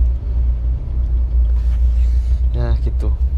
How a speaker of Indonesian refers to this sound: ini aku kena macet jadi ya hmm, kapan sampainya ini